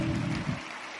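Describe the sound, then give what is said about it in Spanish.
A short burst of audience applause for the group's diamonds, emeralds and leaders, a dense patter of many hands clapping at once that thins out after about half a second, with no voices heard. “Un aplauso, el mejor de los aplausos para sus diamantes, para sus esmeraldas, para sus líderes.”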